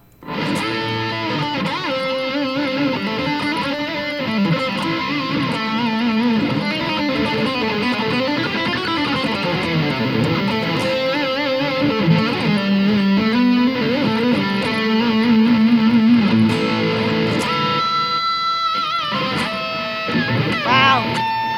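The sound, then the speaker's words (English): Distorted electric guitar noodles freely in E for about twenty seconds, a loud, continuous stream of wandering melodic runs and sustained notes with a gritty, saturated tone, played alone. “Can just we noodle? just noodle for you for a second?”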